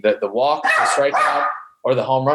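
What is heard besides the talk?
dog barking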